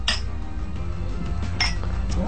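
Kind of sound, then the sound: household object, glasses clinking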